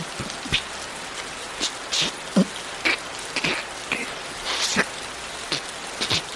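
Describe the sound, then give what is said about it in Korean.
Heavy rain pours down in a steady, dense hiss, loud enough to drown out speech, with scattered louder drops spattering. No voices are heard. “뭐 빛깔 하도 내려가지고 말도 안 들리네 이거.”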